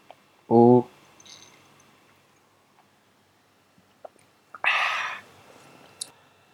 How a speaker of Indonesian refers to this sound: mengapa suaranya begitu nikmat karena ini whisky